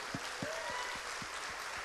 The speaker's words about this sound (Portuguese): Aleluia! Vamos aplaudir o nosso Senhor.